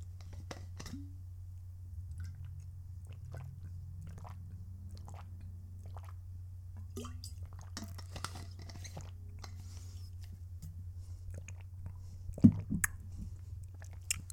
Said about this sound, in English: So I had to take a sip of water there. My throat was kind of husky.